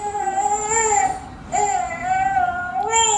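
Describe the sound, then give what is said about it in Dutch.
A baby cries in sustained, wailing bursts with a short catch for breath between them, loud, with no talking over it; the crying is being analysed. “Nu wordt het huilen van de baby geanalyseerd.”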